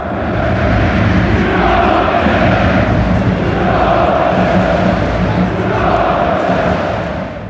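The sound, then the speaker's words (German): A dense, roaring crowd of stadium fans keeps up loud, sustained cheering and shouting after the final whistle of a football match, swelling in waves with a steady broad wash of voices throughout. “Deshalb war das natürlich nochmal ein ganz besonderes Zeichen von Aktiv. Denn so hörte es sich nach dem Abpfiff an.”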